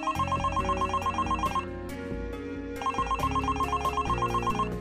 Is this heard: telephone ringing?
yes